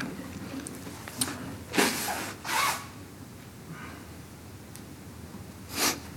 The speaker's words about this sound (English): oh man, I just need to blow my nose. Bear with me.